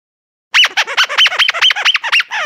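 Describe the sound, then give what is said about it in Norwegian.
A squeaky chicken dog toy being squeezed over and over, giving a quick, loud run of shrill, wavering squeals after a moment of silence, with no voices. “Eller det, det hørtes ut som sånn kyllingpipeleke.”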